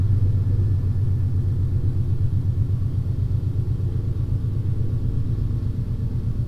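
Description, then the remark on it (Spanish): An enormous train engine rumbles steadily and deeply, with a rapid, even pulsing throbbing through the low drone. The sound stays loud and constant from start to finish, with no voices. “Los llanos comenzaron a vibrar con el sonido de una máquina, una enorme máquina que para ese entonces transportaba algodón, azúcar, frutas, pulque, carbón, ganado, madera, café y por supuesto viajeros.”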